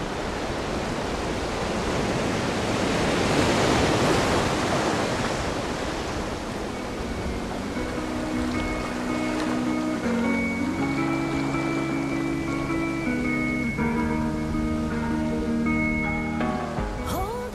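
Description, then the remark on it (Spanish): A steady, rushing wash of ocean surf on a beach fills the opening seconds, loud and continuous, then soft sustained musical tones rise over the waves and continue to the end. “Hoy veremos en la playa a Verónica. Solo nosotras, el mar y la arena.”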